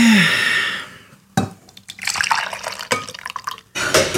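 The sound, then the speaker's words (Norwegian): Coffee is poured into a cup, a steady liquid stream trailing off, followed by a few short splashy bursts and drips. No one speaks. “Ta meg litt kaffe.”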